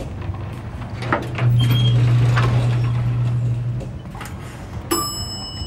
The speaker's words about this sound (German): Der Fahrstuhl setzt sich in Bewegung und kommt zu euch. Die Tür geht auf.